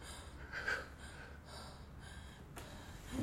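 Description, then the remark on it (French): Heavy, panting breaths from two out-of-breath people lying on a living room floor, ragged inhales and exhales repeating every second or so, fairly soft, with no talking. “Ils gisent tous les deux, essoufflés, sur le sol du salon.”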